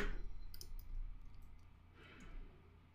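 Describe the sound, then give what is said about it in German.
Several quick, light clicks spaced irregularly over a quiet background hum, a computer mouse button pressed repeatedly to click on a link. “Den, den kann ich so oft anklicken, wie ich will.”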